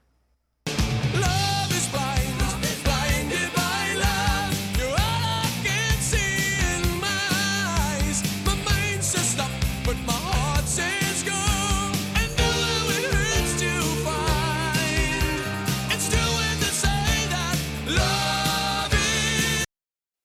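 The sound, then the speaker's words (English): A loud, dense rock song plays continuously for about twenty seconds, with two gritty distorted guitar riffs, the first rising in scale and the second descending, driving over a heavy bass and drum backing, and no talking. “really like what they did with those two riffs right there. You've got the first one that's going up in scale, and then the second half where it goes down.”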